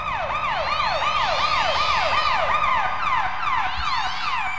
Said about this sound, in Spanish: Y de pronto se pusieron muy locos los granaderos porque le subieron el volumen a sus sirenas. A mí eso me llamó mucho la atención. Le subieron el volumen y pusieron... Eran como gritos, como cuando los gatos en la noche andan peleando y eso.